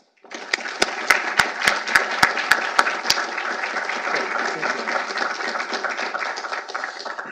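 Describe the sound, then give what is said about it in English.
An audience at Heritage breaks into steady applause welcoming Senator Dan Sullivan of Alaska, with a few sharp claps standing out rhythmically near the start before the clapping settles into an even, sustained wash. “And so please join me in welcoming Senator Dan Sullivan from the great state of Alaska.”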